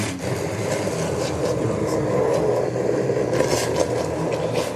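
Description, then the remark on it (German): An electric blender motor grinds steadily through thick jam, a loud, continuous whir with a rough, labouring edge that surges slightly now and then without stopping. “Das ist für den Mixer jetzt harte Arbeit.”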